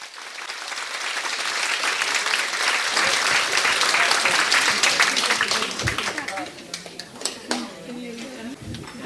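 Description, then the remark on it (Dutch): An audience at a celebration breaks into sustained applause for Wieteke van Dort in her role as Tante Lien. A dense wash of many hands claps at steady loudness, thinning out toward the end as a few scattered claps and murmurs remain. “Ik dank u voor uw gehoor en ik vraag dan nu uw aandacht en uw applaus voor Wieteke van Dort in haar rol van Tante Lien.”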